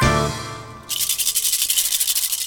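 A brief tonal sound fades, then a rattle is shaken rapidly and steadily, giving a bright, hissy, rhythmic swish that continues loud until the end.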